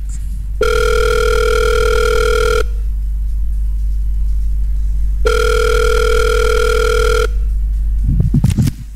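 A telephone ringback tone sounds twice while calling a member of a band, each long steady buzzing burst lasting about two seconds with a pause between, loud, followed by a brief rustle at the end.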